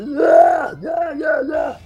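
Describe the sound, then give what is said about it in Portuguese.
A man voices a strained, anime-style battle yell in a Japanese tonality for the character Soul Bad Guy in the fighting game Guilty Gear: one long, loud swelling cry followed by two shorter rising shouts, all in a tight rapid run. “Aí o cara pediu para fazer dentro da, da tonalidade do japonês, né? O japonês geralmente grita assim, ó.”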